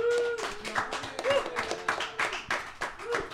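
An audience bursts into applause at a recording of the Anacortes Music Project's The Next Show, many hands clapping in a dense, uneven crackle that stays steady throughout, with faint voices and a brief whoop or whistle mixed in.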